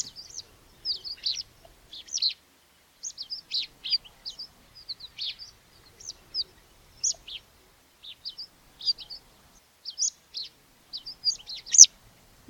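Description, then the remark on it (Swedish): Water pipit flight calls: thin, high, squeaky chirps repeated in quick irregular bursts throughout, several birds calling, with no voices present. “De här ängspiplärkeliknande lätena som ni hör det är ju eh, Cotelli vattenpiplärkor.”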